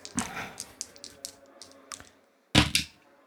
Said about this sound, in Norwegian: Så da kaster jeg to terninger for Amandine. Hun får fem, og klarer altså med en margin på fire.